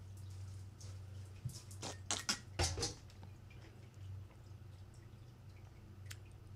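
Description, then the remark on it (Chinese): Water being poured into a cup and spilling over, a short burst of splashy, gurgling pours over a steady low hum, followed by quiet and one faint drip-like tick near the end. “我刚刚倒水倒一倒，我竟然倒出来，我没没有感觉”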